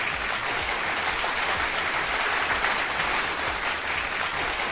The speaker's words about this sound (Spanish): Es más, todo por eso vamos a poner unos aplausos por las piñatas.